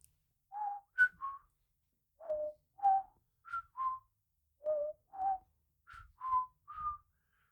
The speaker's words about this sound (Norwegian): Hvis man hører på orgelsmetten, mm. som er en ganske fascinerende, søt liten eh, fugl, mm. den har et ufattelig melodisk og enkelt materiale som høres litt mer sånn